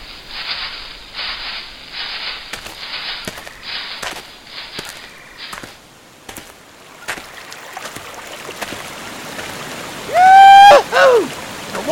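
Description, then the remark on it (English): Steady rushing hiss of a flowing river in a jungle, broken by scattered clicks and small splashes, with a loud warbling, swooping tonal call cutting in near the end. “I can't see nothing but trees, and I think I can hear a river.”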